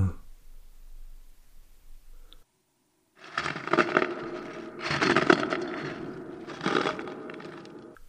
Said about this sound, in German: Haben Sie das auch gehört? Doch, doch, da knirscht doch was. Bei der Tür. Ich guck mal nach.